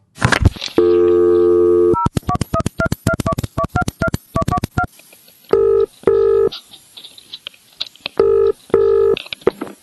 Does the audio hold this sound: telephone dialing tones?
yes